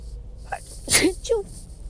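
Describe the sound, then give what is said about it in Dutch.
A single sharp sneeze bursts out, preceded by a quick intake of breath and trailed by a brief voiced sound, against a quiet background. “Die, gezondheid”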